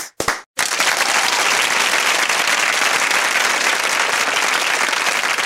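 An audience bursts into sustained applause after a brief opening crackle and a short gap, the dense clapping holding steady and loud for several seconds with no voices over it.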